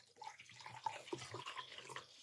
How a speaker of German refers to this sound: Äh, ich, so, ich, ich schenke ne? schenk mir gerade Wasser ein.